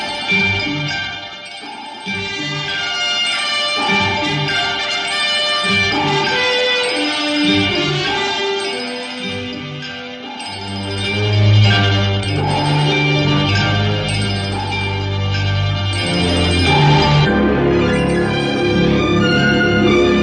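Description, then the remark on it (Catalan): The opening theme music of the TV series Viaje al fondo del mar (Voyage to the Bottom of the Sea) plays on its own, a dramatic orchestral theme, loud and continuous, with sustained brass and strings swelling and a heavy low bass line rising into the second half. “Doncs bueno, ara ja només ens falta escoltar la seva música, que era aquesta.”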